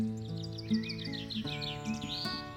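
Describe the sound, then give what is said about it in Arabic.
Small birds chirp and tweet in quick, overlapping bursts, a busy flutter of high calls layered over a steady low tonal hum in the background. “ليه بقى صوت العصافير وانا صغيره جدا اكتشفت بسبب ان احنا كنا ساكنين في بيت فيه شجر كتير في الشارع يعني الشجر كتير آه، وكنا بنصحى بدري عشان نروح المدرسه لقيت اكتشفت حاجه انا كنت معتبرها كشف علمي العصافير بتبتدي تزقزق بدري شويه”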